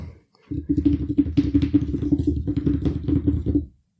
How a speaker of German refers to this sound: Ne, so schnell tippen die nicht, ne? Nee, nee, die tippen. Nee, nee, zu schnell.